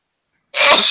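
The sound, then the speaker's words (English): A single loud sneeze bursts out after a moment of silence, a sharp, hissy explosion of breath with no talking around it. “Bless you”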